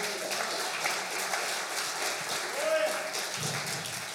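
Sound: audience applauding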